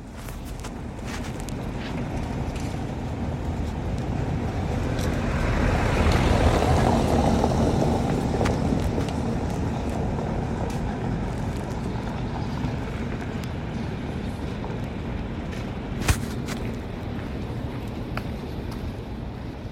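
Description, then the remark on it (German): Steady outdoor street rumble on a cobblestone street along the Spree where very few cars may drive, one vehicle swelling louder and fading as it rolls past, with scattered light clicks and footsteps; no one speaks. “Okay, das ist eine Straße, die ist gar nicht weit von der, von die, die wir eben gehört haben, liegt, die geht an der Spree lang und die hat sogar Kopfsteinpflaster, aber da dürfen ganz wenig Autos nur langfahren oder da fahren nur ganz wenig Autos”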